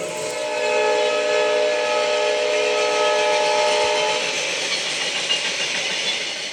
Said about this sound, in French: Et dès qu'ils entendent ça, ils disent un train, une gare. Et c'est leur faire prendre conscience aussi qu'avec des sons, on raconte des histoires.